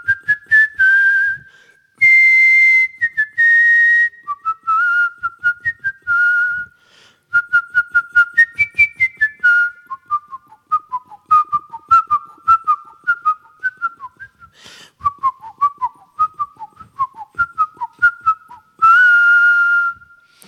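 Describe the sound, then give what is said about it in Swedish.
A person whistles a melody from Beethoven's Seventh Symphony solo for about twenty seconds, with clear, bright tones, sustained notes alternating with quick stepwise runs, fairly loud, with no talking. “Och jag ska avsluta det här genom att vissla ett stycke ur Beethovens sjunde symfoni.”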